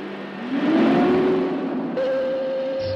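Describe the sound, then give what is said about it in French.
A big boring machine is started up to cut into a wall during excavation work, its motor roaring louder as a whine climbs in pitch, then settling into a steady mechanical drone with a high tonal hum. “Mettete in moto la fresa.”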